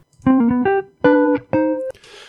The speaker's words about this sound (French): Comment se fait-il que le son émis par le klaxon soit le même alors que le son perçu par la personne varie avec le mouvement de la voiture par rapport à elle